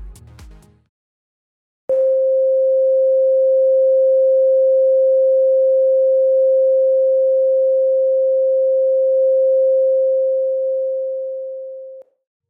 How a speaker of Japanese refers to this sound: 私はソルフェジオ周波数の9種類の中でも 528Hz の音が好きです。少し流してみますね。